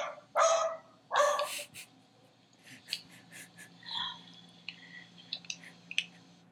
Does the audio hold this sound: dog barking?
yes